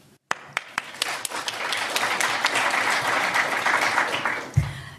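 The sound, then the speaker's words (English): A few sharp, scattered claps quickly swell into steady applause from a sizable audience welcoming the evening's panel, sustained and fairly loud, with a low thump near the end as it continues. “Thanks again for coming, and join me in welcoming our panel for tonight.”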